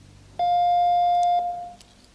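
A patient call bell in a hospital intensive care unit sounds once, a steady electronic tone held for about a second before fading briefly. It is clear, with no voices.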